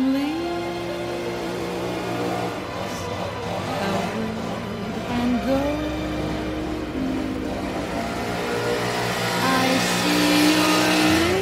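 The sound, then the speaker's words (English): A leaf blower's small engine runs loud for the whole stretch, its droning whine rising and dipping in pitch as it revs, with no one speaking. “The Leaf Blower.”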